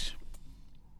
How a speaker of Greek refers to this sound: συγγνώμη, έπια μια γουλιά με αυτή την υπέροχη Τέρατο λεμονάδα. Τέρατο λεμονάδα, ναι.